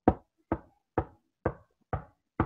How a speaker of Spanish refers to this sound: Y en eso se empiezan a escuchar golpecitos en la puerta.